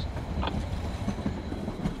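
train rolling on rails

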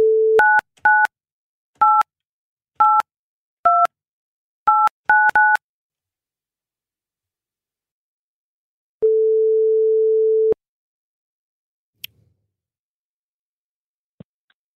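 telephone dialing tones

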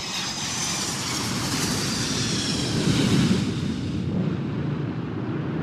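airplane landing

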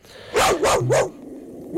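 dog barking

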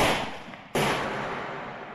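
two gunshots

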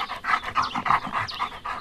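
dogs barking and panting

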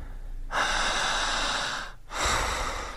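deep breathing

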